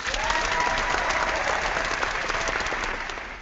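A crowd applauds loudly and steadily, a dense wash of clapping hands with a few cheers mixed in, holding at an even level for the full few seconds before easing slightly.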